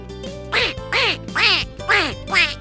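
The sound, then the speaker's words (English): A duck quacks five times in a steady, evenly spaced rhythm, each call loud, nasal and raspy, with a soft sustained tone humming underneath. “A mother duck sits on many eggs.”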